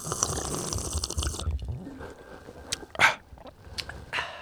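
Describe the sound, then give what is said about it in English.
Wet gulping sounds from someone taking an ASMR drink, a few swallows with soft liquid noises, one sharper gulp standing out midway, no talking. “Bro, I love I love your gulp, your neck, your little neck gulp in there.”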